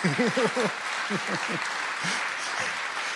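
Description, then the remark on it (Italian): Steady audience applause fills the whole stretch, a dense, even patter of many hands clapping, with a few voices talking or laughing over it near the start. “Se dovete applaudire non è che...”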